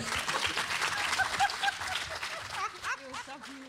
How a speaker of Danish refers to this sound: Mine damer og herrer, så vi skal vi give en hånd for den historie.